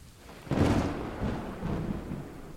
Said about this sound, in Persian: رضا فقط به صدای باران گوش بدی